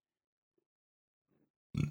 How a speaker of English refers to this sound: Excuse me, goddamn. I'm going to leave that in just to kind of call out myself. I'm so sorry. That was a good burp.